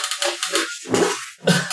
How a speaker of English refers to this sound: I can hear it like oh. crackling. and second, I was like, "Who's making noise? It's who's rumbling plastic." You just taped it.